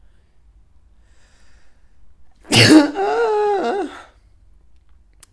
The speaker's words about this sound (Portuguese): yeah, acho que tive agora um, um oitavo de orgasmo. Uh, mas realmente sabe muito bem. Um espirro sabe muito bem.